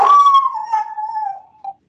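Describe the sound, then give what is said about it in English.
A dog lets out a single drawn-out howl, a steady sustained tone that slowly falls in pitch and fades, ending with a brief short yelp, clear with no talking. “Yeah, so he's howling for him too.”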